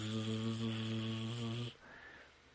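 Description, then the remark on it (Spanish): A voice imitates a buzzing sound heard inside the speaker's head: a steady, strongly harmonic drone held for under two seconds, loud, then cutting off abruptly into quiet. “E, esta vez que te estoy platicando, se escuchaba como un zumbido adentro de mi cabeza.”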